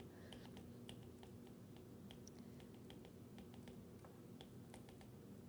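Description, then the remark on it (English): Soft, irregular clicks of someone typing notes on a computer keyboard, a steady patter of keystrokes over a low background hum with no voices. “Yeah, you can hear me doing the equivalent of scribbling notes as you tap, yeah.”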